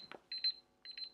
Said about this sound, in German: Das war der Wecker.